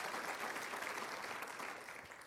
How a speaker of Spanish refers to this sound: Aplaudele fuerte al Señor. Amén.